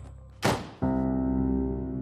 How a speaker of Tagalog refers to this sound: Mabilis na tumango si Biner at muli na namang kinandaduhan ng pinto.